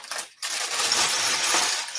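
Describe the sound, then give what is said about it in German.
Small plastic toy bricks rustle and clatter in a dense, continuous stream, briefly pausing near the start before the sifting resumes. No one speaks. “Okay, ich glaube, es wird auch wieder so ein Raschel-Stream hier.”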